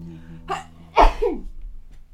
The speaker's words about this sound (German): Gesundheit. Oh gleichzeitig gerülpst und genießt. Das ist neu, das hatte ich noch nie.